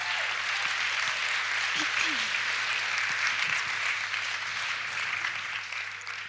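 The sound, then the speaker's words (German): Sustained audience applause for two women invited onto the stage, a dense wash of clapping that holds steady for several seconds before easing slightly, with a few faint voices and cheers mixed in. “Gebt den beiden mal einen Riesenapplaus”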